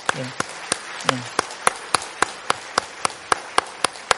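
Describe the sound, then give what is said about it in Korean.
A church audience claps warmly to welcome new members as they stand: a steady, even rhythm of sharp claps stands out over a dense wash of crowd applause, with a couple of brief voices near the start. “우리 권사님 한번 다 같이 한번 일어나시면 저희가 뜨겁게 박수로 환영하고 또 가족된 것을 저희가 기뻐했으면 좋겠습니다.”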